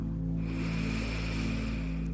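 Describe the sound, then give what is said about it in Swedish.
A slow, deep breath drawn in through the nose during a guided breathing exercise, a steady airy rush lasting about two seconds, over a low background hum. “Andas in igen.”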